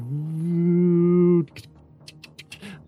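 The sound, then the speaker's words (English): A voice imitates an old computer starting up: a steady droning hum for over a second, then a quick run of clicky, hissing bursts, fairly loud. “But as the blackness starts to fade, you hear the sound of like an old computer starting to boot up”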